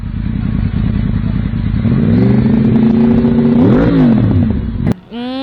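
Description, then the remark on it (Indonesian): A loud, heavy big motorcycle engine rumbles, its noisy exhaust revving up in rising and falling surges before a sharp crack and a quick climbing rev at the end. “itu motor yang apa yang moge moge yang berisik berisik oh yang kenal pot”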